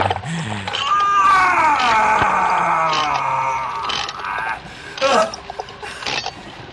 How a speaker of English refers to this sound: Oh, hold that thought. I need to wind this up again.